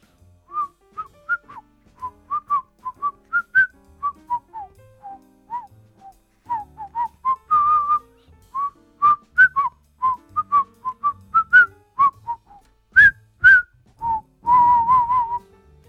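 Someone whistles a lively tune for about sixteen seconds, short clear notes rising and falling in a quick, bouncy rhythm, ending with a few longer warbling tones. No one speaks.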